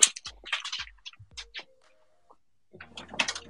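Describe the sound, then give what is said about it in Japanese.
A pet dog's claws click and tap on a hard floor in quick, irregular bursts, pausing briefly in the middle with a faint low hum before the pattering resumes. “なんか、あ、カタカタはね、うちの犬の犬の足音ですね。”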